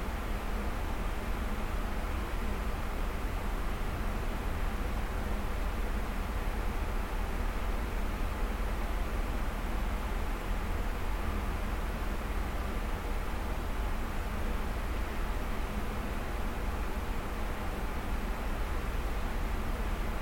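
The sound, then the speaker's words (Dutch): A steady, even hiss and whoosh of climate control units in an audio archive, unchanging in level throughout with a low rumble underneath and no voices. “Het enige hoorbare in deze opname is het sluiten van de deur van het archief en het ruisen en suizen van de klimaatregelaars.”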